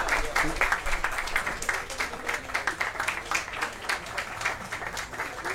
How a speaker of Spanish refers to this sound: en este momento nos informa que ya se va acercando el magistrado presidente, a quien le pediría a todos los asociados que, pues, que le demos un fuerte aplauso para comprometerlo en la partición de justicia en el estado de Morelos.